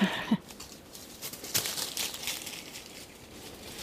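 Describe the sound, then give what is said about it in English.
A kākāpō chewing an almond: scattered dry crunches and crackly crinkling bursts, irregular and fairly quiet, with a couple of sharper cracks and soft gnawing between them. “And just what every girl needs after pretend sex is an almond to chew on.”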